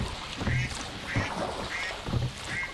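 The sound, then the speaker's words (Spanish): Several ducks on a lagoon quack in a steady series of nasal calls, moderately loud, with a soft watery ambience in the background and no one speaking. “Los patos de la laguna, por Renal Díaz del Castillo y Rodrigo de Cuenca.”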